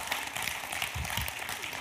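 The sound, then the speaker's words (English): An audience claps steadily, many hands blending into a dense, continuous patter of applause that holds at an even, moderate level with no one speaking over it. “If we're going to clap, then clap.”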